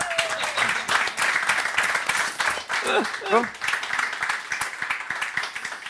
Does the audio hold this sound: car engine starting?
no